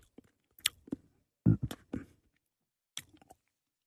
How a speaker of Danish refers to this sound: Nu har jeg fundet en dansk producent øh, af Aarhusiansk herkomst, som hedder Royal Shandy. Og det er 50% øl og 50% limonade, men 100% refreshment. Og nu vil jeg smage den.